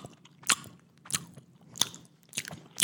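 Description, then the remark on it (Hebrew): Wet, smacking mouth sounds of fingers being licked as an ASMR sound: four or five short, moist bursts spaced roughly half a second apart, crisp and sharp against a quiet background, with no talking. “אה, התחלנו את הקרנבל עם כמה, ליקוק אצבעות שני.”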